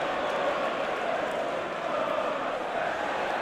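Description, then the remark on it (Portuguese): Manchester United fans in a stadium make a dense, steady roar of many voices, with a scattered attempt at a José Mourinho chant that never quite rises above the overall crowd noise. “torcida do Manchester United respondendo aqui, ó, tentando puxar um José Mourinho aqui no estádio.”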